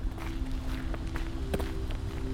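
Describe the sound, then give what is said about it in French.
Steady footsteps of a person walking home from a publisher's offices, at a brisk, even pace, each step a soft tap over a constant low rumble and faint electrical hum. “Je quitte les bureaux de l'éditeur et je me dirige chez moi avec mon précieux pour en faire l'écoute.”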